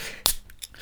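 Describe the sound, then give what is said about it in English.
A can of cold beer is cracked open: one sharp, bright pop followed by a couple of short, faint fizzy hisses, with no voices. “Hang on, I'm actually just going to crack open a cold one.”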